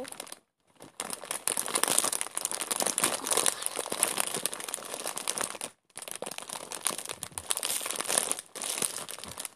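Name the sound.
bag rustling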